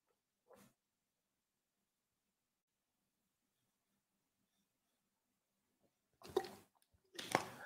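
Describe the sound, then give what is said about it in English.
Someone sips water at the mic: a faint mouth sound, a long quiet stretch, then two louder, wet slurping sips in quick succession. “I'm looking for water. I'm like a oh, wino with this water. Gotta have it.”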